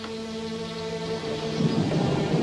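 A thunderstorm with steady rain hissing throughout and a deep rumble of thunder swelling louder in the second half. No one speaks.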